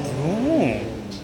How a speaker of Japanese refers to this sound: え、しかもバス え、この音バスなのバスから出てんのマジっすかえ、バスからあんなブオーンと音出るんだ。